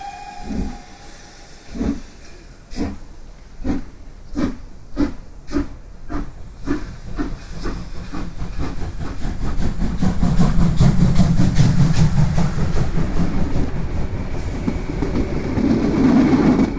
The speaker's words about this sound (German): Und um dreiviertel neun setzte sich der Zug in Bewegung.